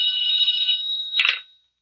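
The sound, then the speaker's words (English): A telephone bell in an office rings loudly in the morning with a steady metallic trill, then is cut off abruptly with a clatter as the receiver is picked up, leaving silence. “We just about finished going through the overnight reports for some kind of a lead when the phone rang.”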